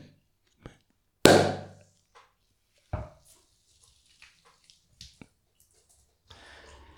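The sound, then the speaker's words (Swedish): The cork of a champagne bottle is twisted open in front of a microphone after the plastic wrap is torn off, with a sharp, loud crack and a short fizzing hiss, followed by a second softer snap and a few faint clicks and ticks. “Vrider upp korken framför sin mikrofon.”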